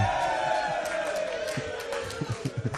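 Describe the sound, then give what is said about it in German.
An audience at a quiz cheers and shouts loudly for a few seconds, celebrating a correct answer about a benzene ring, as a dense wash of voices, with a drawn-out falling cry and a run of rhythmic low thumps near the end. “Ich glaube, so viel Jubel hat ein Benzolring lange nicht mehr bekommen.”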